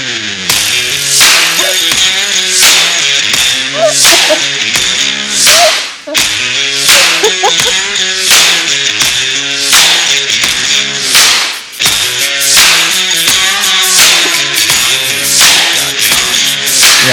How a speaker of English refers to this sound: Imagine, so, imagine if this was the waiting music. Okay, so yeah, this is yeah. Close your, close your eyes. Imagine if you will, a podcast with this waiting music.